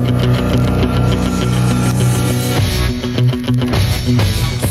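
A loud rock theme song plays on its own, with chugging, palm-muted guitar and sustained low chords punctuated by steady, punchy drum hits.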